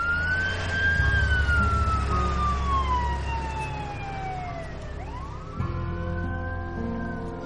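An ambulance siren wails with a long downward-sliding tone as it pulls away from outside a police station, then starts a fresh rising cycle, over a steady low engine rumble. Two paramedics have just loaded Willoughby into the ambulance on a stretcher.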